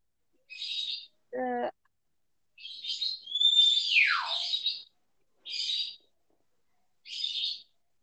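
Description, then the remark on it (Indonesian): A pet bird calls out alone in a series of harsh, raspy squawks, including a nasal honk and one longer, falling screech, spaced irregularly with short pauses, fairly loud. “apa nih? Miara burung nih, siapa yang miara burung nih?”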